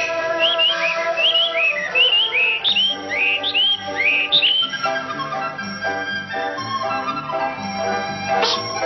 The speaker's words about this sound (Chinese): 太子殿下，这就是宫里的画眉鸟。 画眉鸟。 对， 嘿，真好听。